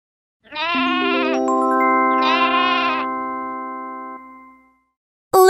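A sheep bleats twice, each call a loud, wavering baa, while soft bell-like tones ring out underneath and slowly fade before a brief sound at the very end.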